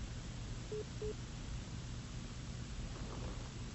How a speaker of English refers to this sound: I'm just hearing a little beep in the background.